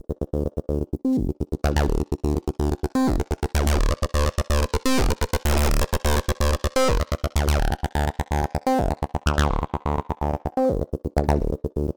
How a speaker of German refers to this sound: Das sieht aus wie eine TB303 und klingt wie eine. Ich fange einfach mal wild an bei Distortion. Den Drive, den drehe ich jetzt langsam mal von 0 auf 100 Prozent.